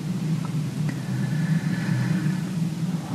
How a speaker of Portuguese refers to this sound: O carro aqui vai passar, vai embora. Olha, cara, ele é. O que, é um saveiro daquelas antigona.